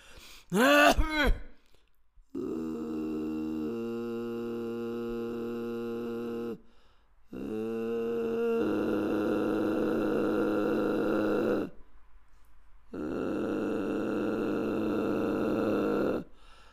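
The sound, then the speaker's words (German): A single female voice hums in three long, steady stretches, strained and buzzy, with several pitches seeming to sound at once, after a short rising vocal squeak at the start, as a multiphonic singer tries to sing a chord. “Ich kann mehrstimmig singen, ich bin eine Multiphonie-Künstlerin.”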